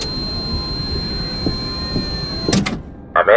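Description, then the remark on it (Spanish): Doors slide shut with a couple of sharp clunks over a steady mechanical hum and high whine, then a brief pause and a bright electronic chime. “Cerrando con puertas.”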